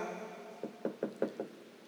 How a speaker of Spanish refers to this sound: Supongamos que toca la puerta